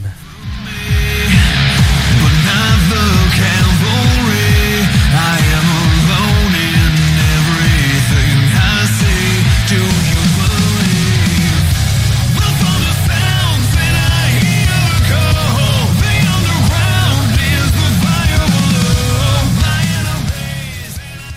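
A loud, dense rock song plays continuously, with heavy distorted guitars over a steady, driving drum beat and thick bass, holding full volume for about twenty seconds before easing off at the end.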